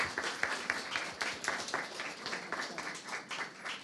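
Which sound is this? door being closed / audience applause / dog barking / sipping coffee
audience applause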